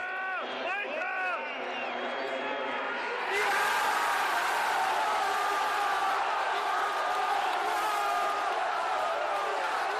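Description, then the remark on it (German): Loud, wavering off-key screaming from a Bayern fan in the third row at the pitch edge in the Bayern curve rings out over a cheering stadium crowd after a goal, then the roar swells into a dense, sustained wall of noise that continues to the end. “Der, der da so schief geschrien hat, ja, das bin ich.”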